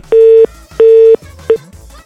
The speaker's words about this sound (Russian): Откуда, откуда длинный гудок? А, вот он, подожди, вот я слышу его даже. Алло, Арсен. Арсен. Это не Арсен, это гудок.